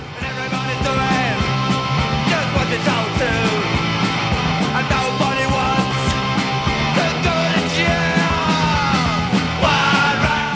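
A loud punk rock song plays throughout, with shouted vocals over dense, driving drums and distorted guitars at a steady, fast pace.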